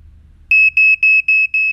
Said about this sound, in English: A smoke alarm can warn you of fire in seconds, reassuring when you consider that every three days someone dies from a fire caused by a burning cigarette. But a smoke alarm is useless without a working battery, so remember the drill.